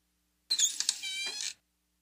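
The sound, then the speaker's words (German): The tenth door of an Advent calendar creaks open on 10 December in a single drawn-out, high, squeaky groan lasting about a second, with a few scraping catches at the start. No one speaks. “Dann machen wir doch mal das Hörbar Steuern Adventskalendertürchen auf.”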